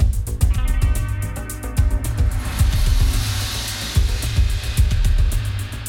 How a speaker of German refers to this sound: Wie schön, statt des üblichen Peng starten wir mit Glockenschlag und hörbarem Sternenglitzern in diese Folge. Danke dafür an meinen Lauschtreff Sounddesigner Uli Rönsch